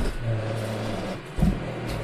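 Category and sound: household object, robot vacuum cleaner running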